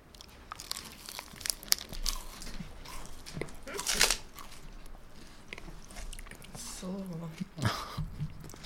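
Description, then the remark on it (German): Mouth sounds of someone biting and chewing a protein bar: irregular crunchy, sticky bites with wet smacking, and a burst of wrapper crinkling along the way. “macht das erstmal mit dem leckeren Proteinriegel.”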